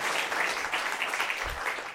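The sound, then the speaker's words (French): An audience applauding to welcome a guest, a dense, steady patter of many hands clapping at once, fairly loud and sustained without pause. “Je vous laisse applaudir.”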